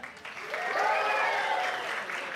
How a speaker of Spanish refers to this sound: Vamos a hacer una pequeña votación, aplausómetro, ya que están aplaudiendo tanto y espero luego aplaudan también un poquito más. Un muy fuerte aplauso para. Sabroso, sabroso. Un muy fuerte aplauso para... Un increíble, hermoso aplauso para...